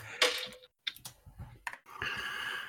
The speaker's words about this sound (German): Ich habe gerade einfach auf die Tastatur gehauen.